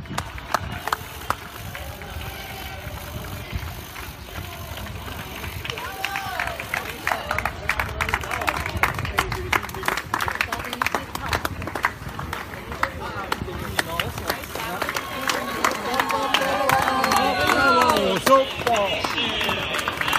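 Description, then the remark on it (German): A crowd cheers near a marathon finish line, with scattered clapping and a mass of overlapping voices that swells louder and more excited toward the end. “Kurz vor dem Ziel die Atmosphäre.”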